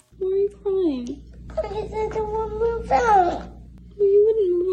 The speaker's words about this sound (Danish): og han græder, fordi han lige har opdaget, at han ikke skal bo med sin mor for evigt